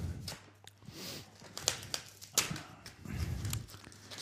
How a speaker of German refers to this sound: Raschel, raschel. Ach, das ist hier von diesem Versender, der immer so negative Schlagzeilen in den letzten Wochen gehabt hat. Jetzt sind die Verpackung auch kaum aufzukriegen.